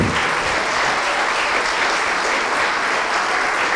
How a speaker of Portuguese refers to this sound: Todos que ergueram as mãos, saiam dos seus lugares e venham aqui para frente e vamos aplaudir ao Senhor Jesus enquanto eles estão chegando.